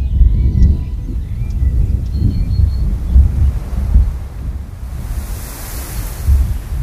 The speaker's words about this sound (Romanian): Un vânt grăbit s-a pornit fără veste, iar vârful frasenului o început să se zgâlție cu crengile unduindu-se sub rafalele întețâte și frunzele frăsuind zgâlțănate